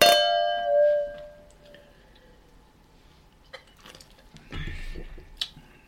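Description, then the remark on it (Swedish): Champagne glasses clink together once in a toast, a bright ring that lingers and fades over a couple of seconds, followed by quiet and some soft handling noises. “Skål. Skål.”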